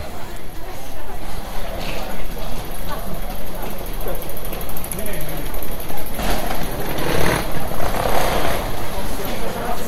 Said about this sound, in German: Wie gefällt euch der Bahnhof hier in Halle? Finde ich eigentlich ganz okay. Gerade hier der, der Space ist ganz schön, die Wege zu den Gleisen sind okay, aber sonst ganz hübsch.